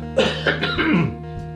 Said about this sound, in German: also ich habe keinen Corona, nur weil ich huste. Also ich muss so husten, ne?